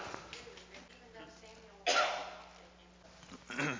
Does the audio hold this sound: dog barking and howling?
no